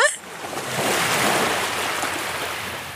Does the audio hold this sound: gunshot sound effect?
no